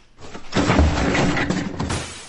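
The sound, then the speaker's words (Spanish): Heavy furniture scrapes and thuds as it is shoved up against a door to block the entrance, a rough clatter of dragging and bumping that lasts a couple of seconds with no one speaking. “Mejor que pongan muebles en la puerta, traquen la puerta o algo.”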